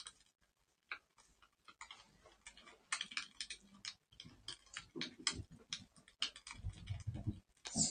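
A cat runs around across a hard floor: rapid, irregular light taps and thuds of paws, sparse at first and then busier and louder, with no one talking.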